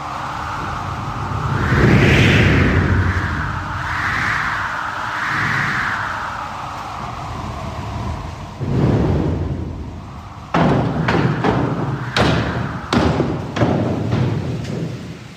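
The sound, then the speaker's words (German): Original mechanical wind, thunder and lightning-strike machines at the Peine Festsäle theatre, partly switch-operated and not played through loudspeakers, rumble loudly: a swelling wind-like whoosh rises and falls in waves, then deep thunderous rumbles and a series of sharp cracking thumps strike heavy, with no talking. “Nee, das sind Blitzeinschlag, Donner, Regen und Windmaschinen, die teilweise zwar mit einem Schalter betätigt werden können, aber ganz oldschool funktionieren.”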